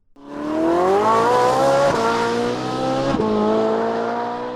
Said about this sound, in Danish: For var der ikke noget med, at vi har en klimakrise, og at store brændstofslugende biler ikke er den allerbedste idé i den her sammenhæng?